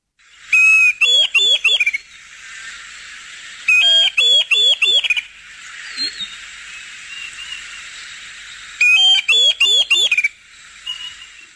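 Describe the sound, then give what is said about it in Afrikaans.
A Diederik cuckoo calls in three separate bursts, each a quick run of loud, clear, rising whistled notes, with soft background hiss between the phrases. “Die volgende sanger, die bekende Diederik”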